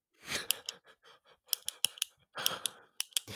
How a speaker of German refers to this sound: äh, das habe ich auch gehört, äh, blöderweise mit einem Kulli. Ich habe mit einem Kulli ah. rumgespielt.